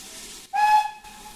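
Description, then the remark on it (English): A steam locomotive hisses steadily at a station while waiting to depart; after a brief break, a short, clear whistle tone sounds over the rushing steam for about half a second before the hiss continues alone. “The loco crew have now got the token.”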